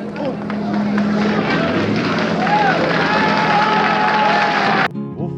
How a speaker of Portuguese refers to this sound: microfone aberto, ouvindo a multidão.